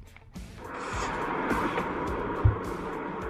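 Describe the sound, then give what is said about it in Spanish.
A Porsche Taycan electric car, driven by a woman on a test drive using launch control, accelerates hard, heard from inside, a wash of road and motor noise swelling quickly and holding steady and loud, with a few low thumps along the way. “una señora fue a la prueba de manejo de Porsche Taycan y le apodan Lady Taycan porque hizo lo siguiente”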